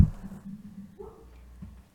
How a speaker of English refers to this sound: Oh, sounds like my dog is getting excited here in the background. Found a found a ball, huh, Margo? Here, give it up.